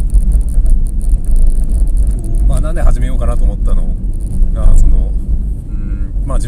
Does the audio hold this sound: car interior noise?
yes